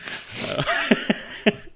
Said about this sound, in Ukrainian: Пес почав гавкати. Пес почав гавкати, ну нічого.